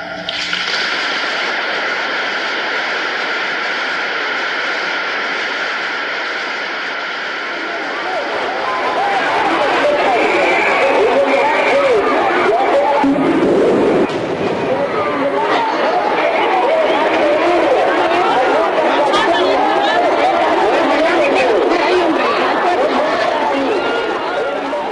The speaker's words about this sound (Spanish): Esta confusión de gritos, disparos, altavoces y detonaciones fue grabada en San Salvador durante el funeral de Monseñor Óscar Arnulfo Romero